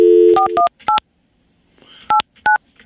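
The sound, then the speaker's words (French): A steady dial tone gives way to a quick run of telephone keypad beeps as a phone number is dialed live to call a contest winner, then a pause and a few more separate key tones, clear with no talking. “on vous rappelle qu'on fait du direct, alors on va appeler une personne.”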